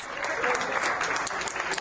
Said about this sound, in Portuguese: Ela trabalha como secretária aqui no HC. Ao sair hoje, ganhou o carinho dos colegas e uma salva de palmas.